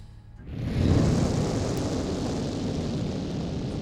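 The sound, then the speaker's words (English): A sudden deep whoosh erupts after a brief quiet moment, swelling into a loud, sustained roar that rumbles steadily to the end, like a large burst of flame. “you hear another gout of flame going off.”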